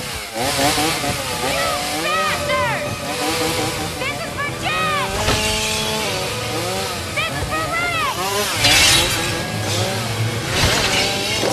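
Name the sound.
chainsaw running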